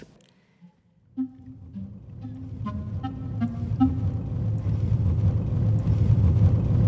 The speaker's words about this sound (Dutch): Nou, we rijden in de auto op de Ellertweg in Drenthe tussen mooie bomen door.